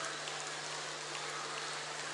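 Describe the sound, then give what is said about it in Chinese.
Audience applause at a world Buddhist friends meeting with Director Lu Junhong, given in thanks to Guanyin Bodhisattva and Lu Junhong, a dense, steady crackle of many hands clapping that holds at an even level throughout, with no voices over it. “让我们再次以热烈的掌声，感恩大慈大悲观世音菩萨，感恩大慈大悲卢军红台长。”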